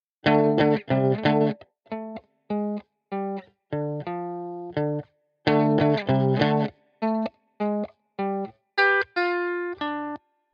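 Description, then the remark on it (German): A distorted electric guitar plays a rock riff of short, punchy repeated notes and chords, with brief gaps between phrases, the pattern repeating twice before ending on higher sustained notes. No voices. “So hätte es mein jüngeres Ich vor vielen Jahren gespielt.”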